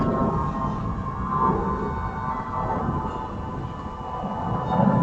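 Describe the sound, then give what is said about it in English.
An aeroplane flying overhead at Coldam Park in the south end of Woodbridge, near the airport: a steady, continuous engine drone with a low rumble and faint humming tones, swelling slightly louder toward the end. No one speaks. “Oh, listeners, an aeroplane.”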